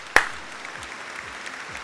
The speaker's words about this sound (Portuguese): Palmas pra Cine. Palmas pra Cine.